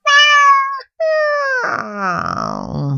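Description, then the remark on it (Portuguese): A cat meows loudly, two long, steady calls separated by a short pause, then the sound turns rougher and lower into a strained, wavering yowl. “O gato, que estava esperando fazendo a ronda, meteu logo uma patada no pobrinho, matando o ratinho.”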